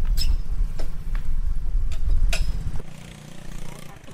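A small step-through motorbike engine starts up close by, its low putter punctuated by a few sharp clicks before settling into a steadier, rumbling idle.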